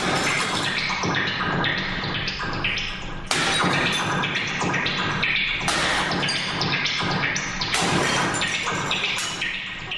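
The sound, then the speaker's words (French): Heavy, amplified blows of a very large hammer strike and crack through bricks every couple of seconds over a dense, churning texture from the modified hammer sound with a bubbling quality, loud throughout, with no voices. “brise les briques avec un super gros marteau euh, amplifié. Puis le son du marteau est modifié, puis ça fait le genre de bruit de bulle”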